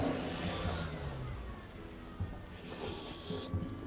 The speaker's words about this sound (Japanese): 今ちょっと車が止まったりしてるんで、ちょっと音が出てると思います。